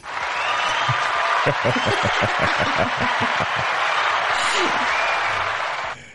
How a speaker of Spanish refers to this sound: Yo creo que nos merecemos un aplauso.